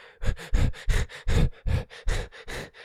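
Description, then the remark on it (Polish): A voice imitates the quick, shallow breathing people do when frightened or panicking: about nine short, airy puffs in a steady fast rhythm, moderately loud, with no words spoken. “tak bardzo płytkie y, oddechy robimy, jesteśmy niedotlenieni, co wspomaga może y, y, produkcję produkcji adrenaliny, przyspiesza bicie serca i jakby wprowadza w nas stan ucieczki.”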